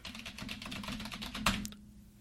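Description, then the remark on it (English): Rapid, continuous clatter of keys being typed on a computer keyboard, fairly loud, with a sharper burst near the end before it stops abruptly. No one speaks. “I just had to type my keyboard in order to get a perfect idea of what he looks like, but that's pretty much what he looks like.”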